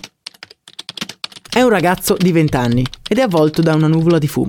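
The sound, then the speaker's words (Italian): Rapid, uneven clicking of computer keys as a young man types in San Francisco, California, in 1999, clear for the first second and a half, then continuing more quietly beneath a man speaking. “Ci troviamo in California e questo rumore che sentite in sottofondo è un altro giovane ragazzo che sta pestando sui tasti del computer.”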